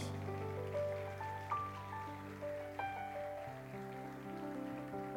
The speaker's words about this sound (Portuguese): Quem pode aplaudir Jesus aí bem forte?